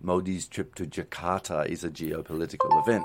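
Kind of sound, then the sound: signal or alarm, phone notification chime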